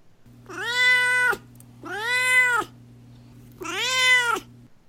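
A cat named Dorothy meows three times, each call long and drawn out with a rising then falling pitch, loud, over a faint steady background hum with no one talking.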